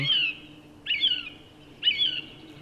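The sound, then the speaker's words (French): A song thrush sings three short, clear phrases, each a bright, high whistled burst with a slight downward slur, repeated at roughly one-second intervals over a faint, steady background of insect sounds, on a mild spring morning of about 15 degrees in a valley in the Drôme, France. “je suis accueilli par la grève musicienne, mais aussi par un, un tapis sonore d'insectes.”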